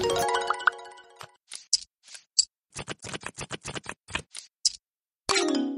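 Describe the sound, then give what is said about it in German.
A clock ticks at a poker feature table in a quick, steady series of crisp, fairly loud clicks, bracketed by short bursts of tonal musical sound at the start and end. “Da sind wir wieder am Feature-Table, am Dealer-Button 15 und die Uhr tickt gnadenlos herunter.”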